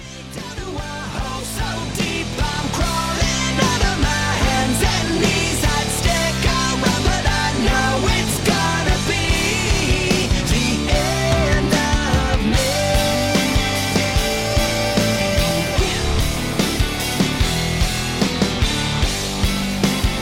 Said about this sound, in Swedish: Ska vi lyssna på den här låten? Ja, det tycker jag.